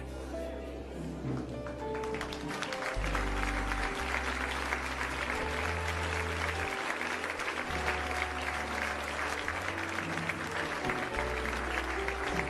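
An audience claps steadily and loudly for God for about ten seconds, the dense applause rising after a quieter start, while sustained low keyboard chords play underneath.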